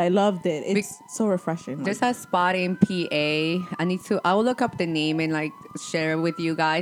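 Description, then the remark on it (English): A wailing emergency siren rises and falls steadily in the background of a city street in New York City, while two people talk continuously over it. “So you do hear the sirens.”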